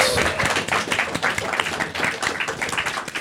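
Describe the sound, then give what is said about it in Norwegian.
Dense, steady clapping from a crowd at a live show fills the whole stretch, a continuous patter of many hands applauding with no pauses. “Stor applaus”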